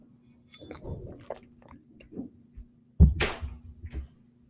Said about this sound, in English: excuse me, I need to take a drink of water.